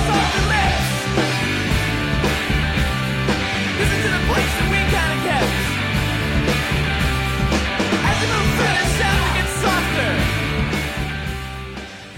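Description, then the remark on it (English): A loud, dense rock song plays continuously, with a lead vocal backed by echoey, yelled background vocals that sound like a second voice shouting along further back in the mix. “there are parts throughout this song where he'll like there'll be this like echoey yelly duet chorus in the background which i find or not uh, someone's yelling behind him which i like”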